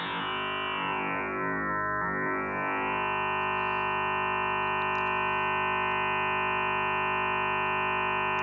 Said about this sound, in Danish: så kan jeg lade endnu en sinus tone påvirke den, der påvirker den første. Og så ændrer klangen sig enormt meget.